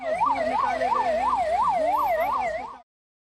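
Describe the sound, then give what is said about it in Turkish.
An ambulance siren wails in a fast, steady up-and-down warble, loud, with a low vehicle rumble beneath it, then cuts off abruptly, as waiting ambulances take workers rescued after 16 days trapped under rubble to hospitals in India. “Kendilerini bekleyen ambulanslarla hastanelere sevk edildiler.”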